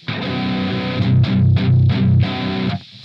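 A loud, heavily distorted electric guitar plays through an effect with the gain turned all the way up, a sustained fuzzy chord re-struck several times in quick succession over a layer of hiss that grows louder while the signal itself does not, then cuts off abruptly.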